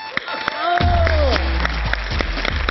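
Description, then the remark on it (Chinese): Steady audience applause welcoming the last contestant, a singer of nearly seventy years old, a dense wash of clapping that swells after the first second and keeps going, with a sustained low hum and a brief voice-like tone mixed in. “来吧，最后一位，最后一位，我认为值得所有人的掌声鼓励，因为今年他已经将近七十岁的高龄了，”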